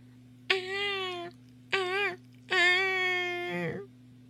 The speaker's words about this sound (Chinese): 呼叫的声音，好像是一个小孩子。他循着哭声找去，终于找到一棵高高的树跟前，看见树上坐着一个小孩。